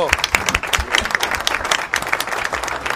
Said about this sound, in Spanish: Recibamos con un fuerte aplauso un ejemplo de superación